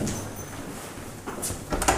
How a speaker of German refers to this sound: Diese Tür schließt automatisch und ist von außen nicht zu öffnen.